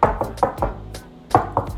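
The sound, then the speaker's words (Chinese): A one-eyed giant knocking on A-Qiao's door from outside: four quick, solid knocks in an even rhythm, a short pause, then two more. The raps are fairly loud and hollow, with no voices. “的敲门声。”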